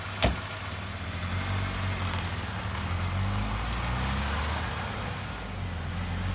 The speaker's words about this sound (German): Oh, da ist unser Taxi.